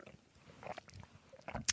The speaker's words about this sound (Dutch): Ehm, ik nam even een slokje water, ik ben niet aan het kwijlen.